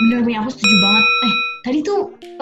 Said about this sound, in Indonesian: eh, sempat denger gak sih ini bunyi teng teng kayak bel gitu kedengeran gak di tempat kamu iya ya kedengeran itu suara apa sih